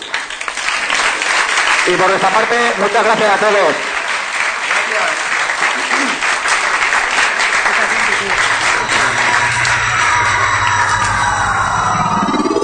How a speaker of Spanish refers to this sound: Ah, nada, pues nada, adelante y un aplauso para ellos.